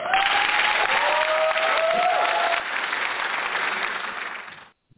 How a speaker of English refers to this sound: Audience, big round of applause.